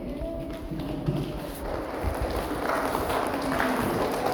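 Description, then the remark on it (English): A group of children giving a soft fingertip clap, a steady, quiet patter of many small taps blending together for a few seconds without a clear beat. “Why don't we give them a little fairy clap, eh?”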